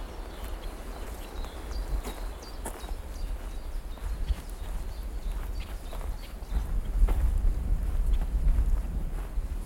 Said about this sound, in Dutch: je hoort wel aan de wind dat we nu het bos uitlopen. en voor ons uit eh, is het een en al openheid.